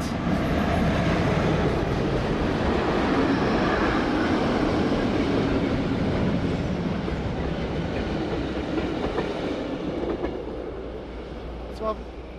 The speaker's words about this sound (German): Übrigens wieder sehr auffällig, auf dieser sensiblen Passage haben die schweren Güterwagen kaum etwas anderes hören lassen als diesen, dieses sehr laute Rollgeräusch. Klack, klack.